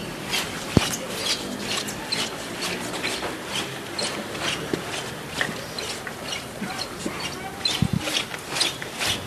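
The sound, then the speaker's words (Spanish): Costaleros under the procession float of the Señor de la Salud, a carving by Fernández Andés, shuffle and drag their feet in unison across the paved stone floor of a plaza, a steady rasping scrape pulsing in short rhythmic strokes, moderately loud, about two and a half metres away, with faint murmurs in the background. “no se escucha absolutamente nada en la plaza, solo la voz del capataz y el racheo de los costaleros.”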